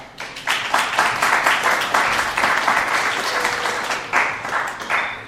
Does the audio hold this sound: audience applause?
yes